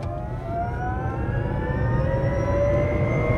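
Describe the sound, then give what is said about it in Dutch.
A steady electric motor whine rising gradually in pitch as a Microlino electric microcar accelerates in traffic, with several tonal layers over a constant low road and cabin rumble, heard from inside, no talking. “Het is elektrisch, dat hoor je ook. Het lijkt soms wel of je in een tram of een metro zit.”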